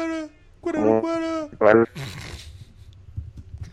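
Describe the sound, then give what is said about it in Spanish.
A voice imitates the cry of Odolwa, the first boss of a video game: a few strained, tonal wails rising to a sharp squawk, then a raspy, breathy hiss trailing off, fairly loud. “Me gustó mucho la, tanto la música como ese sonido raro que hacía como...”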